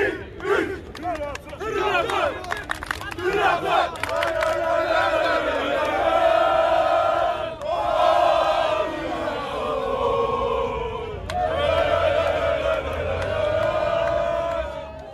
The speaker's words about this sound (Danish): Og derfor så spændede bogstaveligt talt en gruppe Trabzonspor-tilhængere lørdag aften ind på Rådhuspladsen, hvor de dansede den tyrkiske folkedans Horon og fejrede mesterskabet i fællesskab. Og det har vi faktisk noget lyd af lige her.